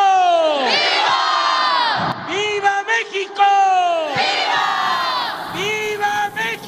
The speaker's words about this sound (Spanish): Viva México, Carlita, Angélica, gritó toda la gente.